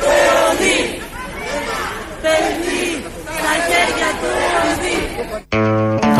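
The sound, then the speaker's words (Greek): A crowd of parents outside a school chants a slogan together in loud, rhythmic unison, voices rising and falling in repeated phrases, before the chant breaks off and a short tonal sound follows. “Οι γονεί φωνάζουν σύνθημα στο τέλο έξω από κάποιο σχολείο.”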